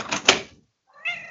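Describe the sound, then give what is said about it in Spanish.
A female cat meows twice at a door, waiting to be let in, fairly loud and separated by a short pause, the first with a sharp knock-like tap at its peak, the second rising and harmonic; no voices. “Déjame abrirle la mi gatita.”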